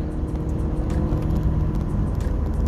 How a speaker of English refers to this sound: That's a loud Mustang passes by, speeding, lucky from the state of Virginia.